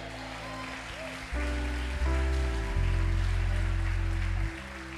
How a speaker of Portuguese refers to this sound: Se você quer dar um glória a Deus aí, aplauda a presença dEle.